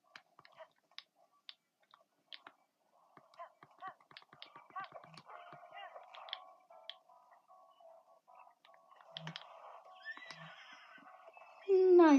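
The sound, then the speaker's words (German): A horse in a video game whinnies loudly at the very end as it is shot, a short, sharp cry after a stretch of quiet clicks and soft rustling game sounds. “Der hat mein Pferd abgeschossen.”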